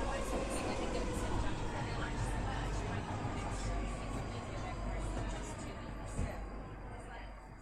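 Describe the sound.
A London Underground train rumbles steadily at Balham station, a dense, loud low roar with hissing high end, muffled voices blurred beneath it and a brief clunk near the end.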